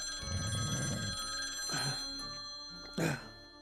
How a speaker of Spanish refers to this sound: Cuando de pronto el teléfono comienza a sonar.